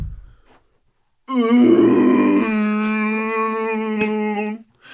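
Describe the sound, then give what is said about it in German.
A person makes a long, low, groaning vocal drone imitating a blue whale call, held steadily for about three seconds with a rich buzzing tone, loud. “Ähm machen die hohen Geräusche, nicht nur die, äh, so hier diese, diese Orcas und machen nicht die Blauwale und so, machen die nicht so ein bisschen so ein”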